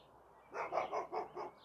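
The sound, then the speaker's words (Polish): A neighbour's dog barks about five times in a quick, even burst, the yaps somewhat muffled, heard from a garden in an otherwise quiet outdoor setting. “Sąsiada pies.”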